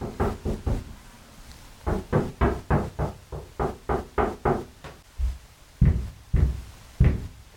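A four-year-old child knocks on a locked wooden bedroom door: a quick run of four raps, a short pause, then a longer steady series of knocks, with a few heavier, louder thumps toward the end. No voices.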